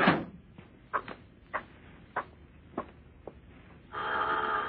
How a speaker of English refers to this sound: As I stood there in the hall, I began to think about that leer he had given me, and I was about to turn back when the door opened.